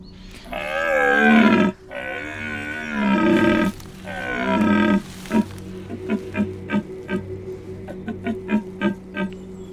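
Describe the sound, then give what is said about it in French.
A voice imitates a red deer stag's rutting bellow: three long, loud, groaning roars, followed by a rapid series of short, rhythmic grunting pulses that fade out. “Donc là, précisément, vous venez de dire quoi En gros, euh, là, le cerf, il, montre qu'il est là, qu'il est présent, qu'il a, a une biche avec lui, qui court après, qui veut l'assaillir, en fait.”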